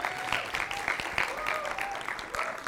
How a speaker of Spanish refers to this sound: podemos darles un aplauso a todos los facilitadores. Podemos darles un aplauso.